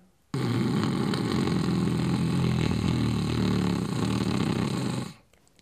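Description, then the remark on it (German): A single long, rattling snore-like sound drawn in on one steady inhale during the Bhramari breathing exercise, loud, lasting about five seconds before cutting off into quiet. “Beim Einatmen erzeugst du einen hörbaren Schnarchklang, der hört sich dann so an.”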